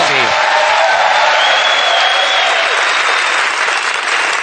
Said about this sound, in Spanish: Pero esta gente es maravillosa. ¡Un aplauso!